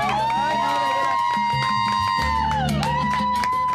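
A live audience cheers and claps, scattered hand claps popping over a crowd roar, while a steady high tone and low musical notes carry through underneath.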